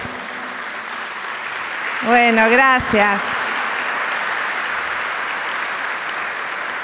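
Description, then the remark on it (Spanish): A crowd at a prayer gathering claps steadily in a dense, continuous wash of applause for people who came from Paraná, while a man's voice speaks briefly over it. “Levántense y vamos a darle un aplauso a ustedes.”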